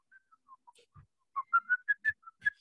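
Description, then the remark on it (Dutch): A person whistles a short, wavering melody, starting with soft, breathy notes and then building to louder, clearer tones in a quick stepwise run. No one talks over it. “Ik kan ook niet zo goed fluiten, maar ik heb iets van...”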